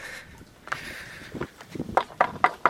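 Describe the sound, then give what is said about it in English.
Footsteps walk along a pontoon at Marmaris Yacht Marina, Turkey, in October 2009, approaching a boat, starting soft and growing into a steady rhythm of firm thuds, with a faint high tone and outdoor ambience in the background and no talking. “here we are on Mike Pontoon with our first official Follow the Boat podcast. Approaching a tiger now.”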